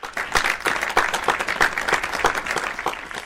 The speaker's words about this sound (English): Oh, claps to him.